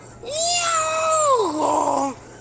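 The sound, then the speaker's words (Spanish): A person telling a joke imitates a cat with one long, drawn-out meow, fairly loud, holding a high pitch before sliding down into a lower, whiny ending. “Y empieza el gato a querer nadar. Y le dice al gallo,”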